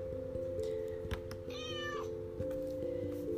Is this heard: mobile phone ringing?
no